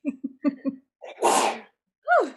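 A single loud sneeze bursts out as a broad, harsh blast, preceded by a few short voiced sounds and followed by a brief falling vocal sound.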